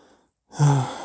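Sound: deep inhaled breath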